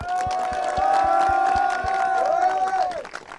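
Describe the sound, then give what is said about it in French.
A crowd claps in a steady rhythmic beat for a couple of seconds while a sustained chant-like tone and cheering voices ring over it, fairly loud. The applause is for a young supporter. “Eh, jeune supporter vite, on applaudit quand même.”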